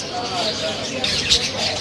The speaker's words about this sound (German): Ja, wir haben diese Vögel gern bei uns zu Hause und deswegen haben wir hier verschiedene Arten von Vögeln, auch verschiedene Katzen auf dem Markt, auch Hunde, viele verschiedene Tiere.